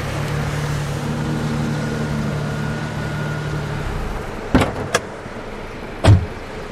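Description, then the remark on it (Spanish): A car engine hums steadily, then cuts off as the overheated car pulls over to the roadside and stops in front of a small white house, followed by a few sharp clunks like a door or handle being worked. “busca un lugar donde orillarse y lo hace frente a una casita blanca en la que un hombre está barriendo el patio.”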